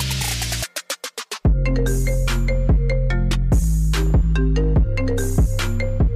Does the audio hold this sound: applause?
no